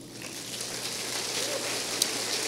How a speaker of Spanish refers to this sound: Dale otro aplauso.